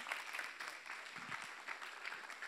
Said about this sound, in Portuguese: Palmas, meu amigo ali, ó. Obrigado pela empolgação.